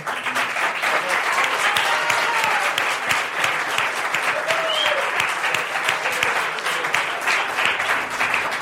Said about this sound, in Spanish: y muchas gracias por haber aplaudido tanto